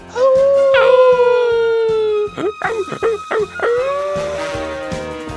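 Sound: dog howling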